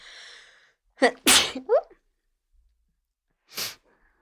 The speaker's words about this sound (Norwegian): Ok, jeg må nyse.